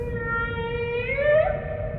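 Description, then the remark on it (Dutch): A humpback whale's drawn-out, tonal moan with rich harmonics, holding steady and then sliding upward in pitch near the middle, heard alone over a low watery rumble. “De bultrug, nou dat is echt een, een prachtige, majestueuze walvis.”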